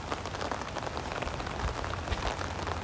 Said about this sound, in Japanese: 雨降ってるよでちょっと寒い